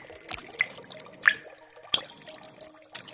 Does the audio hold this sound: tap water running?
yes